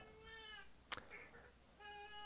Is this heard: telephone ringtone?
no